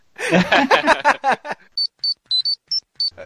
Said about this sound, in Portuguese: Ah, vai Traz esse negócio de digitar o número no telefone que toca a música no Power Funciona, eu não, eu não lembro. Quando eu vi hoje isso, eu falei, ah, eu vou testar. Lógico que eu não digito tão rápido assim, mas não é que apareceu mesmo?